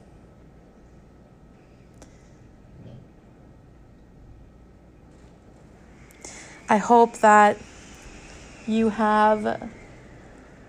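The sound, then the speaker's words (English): Steady low rumbling wind howling outside fills the background throughout, a constant muffled roar, with a person speaking briefly over it near the end. “If you can hear the wind howling, I apologize for the background noise.”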